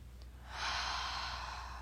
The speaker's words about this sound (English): Before we start, just take a deep breath with me. Breathing through your nose.